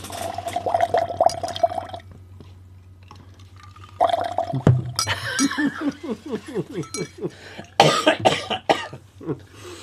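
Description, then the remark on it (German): Loud bubbling in a drink, like air blown through a straw, comes in a few gurgling bursts separated by short pauses. A brief low hum sounds at the start. “Blubber doch okay, nicht so.”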